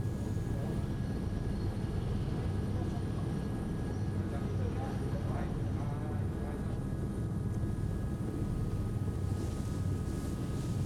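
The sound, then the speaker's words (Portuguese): The Record TV helicopter's engine and rotor make a loud, steady drone that fills the whole stretch as it films traffic congestion on the Castelo Branco highway, heading inland from São Paulo towards Alphaville in Barueri, Brazil. A faint voice briefly surfaces beneath the roar. “Flagrante do helicóptero da Record TV, congestionamento na rodovia Castelo Branco, sentido interior.”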